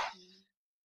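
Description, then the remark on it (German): A single short sneeze bursts out sharply, then trails off in a brief voiced tail and fades to silence. “Oh, Gesundheit.”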